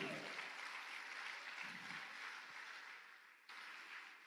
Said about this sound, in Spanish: Alguien dele un fuerte aplauso al Dios de gloria.